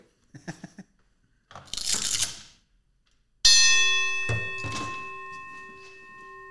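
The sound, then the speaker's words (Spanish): A few soft thuds and a brief rustling scrape, then a boxing bell is struck loudly, rung again a moment later, its metallic tone ringing out and slowly fading. “Este, déjame tocar la campana.”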